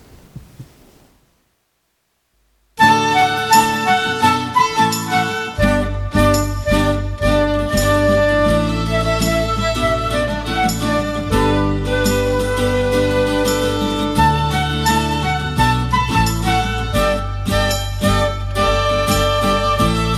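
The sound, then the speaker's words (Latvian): After about three seconds of near silence, a religious youth song linked with church youth events, pilgrimages and camps starts playing, a full band with steady heavy bass and bright layered tones continuing loudly to the end. “Tas pirmais, kas man ienāca šodien prātā, es noteikti visu šo dziesmu dzirdēju miljārdus reizes, tā kā reižu nu, paklausīsimies vēlreiz.”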